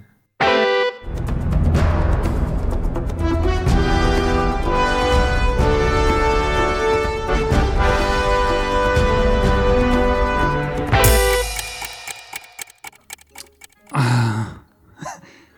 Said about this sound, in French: Ah si, si, si, ça y est, c'est, c'est Uncharted, c'est le thème euh, principal d'Uncharted.